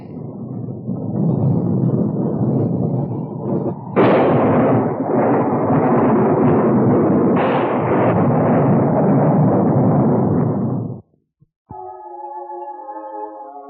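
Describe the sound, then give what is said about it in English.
Rolling thunder from an approaching storm at night rumbles loudly, with two heavy cracks that swell into a long, booming roll before cutting off, followed by a few seconds of soft tonal music. “storm coming up.”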